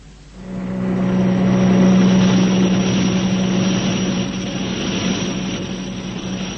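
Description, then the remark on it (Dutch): A spacecraft engine rumbles to life within the first moment, then holds a loud, steady drone with a deep tonal hum and broad roaring hiss, running continuously with no voices. “Dat is wel genoeg. Motor af.”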